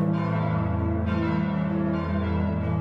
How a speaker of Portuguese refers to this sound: alguns desses aparelhos sonoros se tornaram símbolos por algum fator, seja pela história, pela simbologia ou simplesmente pelo som transmitido com o seu toque. A cultura dos sinos resiste por séculos, chamando a atenção de pessoas até hoje.